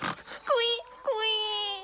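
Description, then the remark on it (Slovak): A voice imitates a crying piglet: two drawn-out, whiny squeals, each starting high and sliding lower, fairly loud, after a brief muffled snort. “Bé, prasiatko, neplač”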